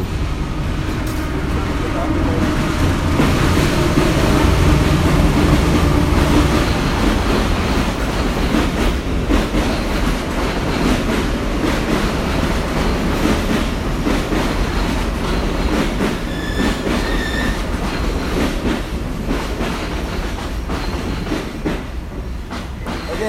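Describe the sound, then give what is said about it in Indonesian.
A train rumbles past, a loud continuous low roar with rattling wheel clatter that swells early, then slowly fades, with a brief high squeal near the end. “Oh sebentar ada, ini ada kereta api lewat. Dengerin dengerin suara kereta dulu.”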